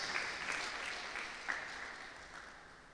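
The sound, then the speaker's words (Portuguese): A crowd applauds for the women, many hands clapping in a dense, even patter that holds at a moderate level for the full three seconds, with no voices rising above it. “Clap for the women.”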